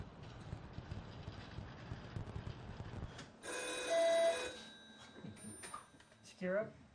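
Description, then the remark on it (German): A red telephone in the training centre of a missile early-warning facility rings once in a loud, sustained electronic trill lasting about a second, after a low rumbling background; faint knocks and a brief voice follow. “Im Trainingszentrum haben sie ein rotes Telefon, so wie man es aus Hollywood-Streifen kennt.”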